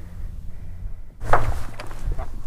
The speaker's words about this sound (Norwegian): Det var lyden av Morten som skjøt.